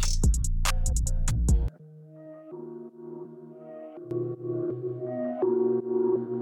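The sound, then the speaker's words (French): The intro of an exclusive rap track: a few punchy, bass-heavy beat hits up front, then they drop out for sustained synth chords and a slow melodic line, loud with no vocals yet. “c'est d'écouter un son, un deuxième son en exclusivité”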